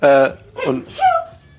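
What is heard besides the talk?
loud sneeze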